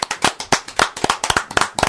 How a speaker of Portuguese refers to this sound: Regis Royer merece uma salva de palmas.